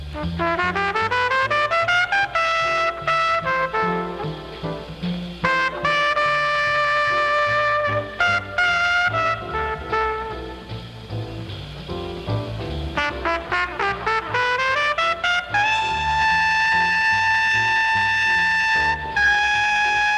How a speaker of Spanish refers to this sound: con este tema del disco …, que suena así.